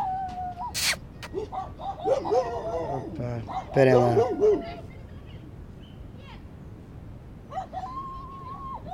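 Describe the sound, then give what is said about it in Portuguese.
Dogs whine in high, drawn-out tones and let out a few sharp barks while a person briefly speaks over them. “Desculpem lá os cães estão aqui chateados comigo, venho já.”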